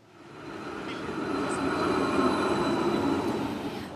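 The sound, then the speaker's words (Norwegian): The tram in Kardemomme Town rumbles along to Kardemomme Bridge and stops there, with a steady low mechanical roar and faint high squeals from the wheels, the sound swelling slightly as it slows down. No one speaks. “Der stanser trikken for oss nu.”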